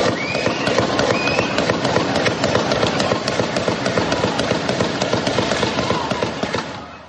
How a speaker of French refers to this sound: Oui, il y a eu deux séries de coups de feu. Les participants ont défilé, les spectateurs ont commencé à courir dans toutes les directions.